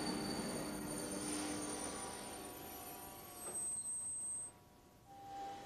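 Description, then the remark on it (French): A TGV high-speed train on the Paris to Quimper line pulls into Rennes from Paris with sustained, piercing wheel squeal, steady high-pitched tones ringing over a broad rumble, then a brief brake hiss as it slows; no voices. “Ce TGV qui relie Paris à Quimper arrive juste de la capitale.”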